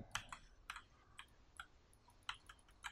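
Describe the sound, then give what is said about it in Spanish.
Irregular bursts of computer keyboard and mouse clicks from someone playing a video game, a dozen or so sharp taps in quick clusters, fairly quiet, with no one speaking. “Y con un este teclado, este, con un mouse que no está a mi gusto.”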